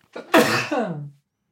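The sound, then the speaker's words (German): A single loud sneeze: a short breathy intake, then a sharp explosive burst trailing off into a voiced tail, with no talking. “Gesundheit.”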